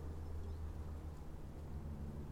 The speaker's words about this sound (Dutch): Het vliegtuig.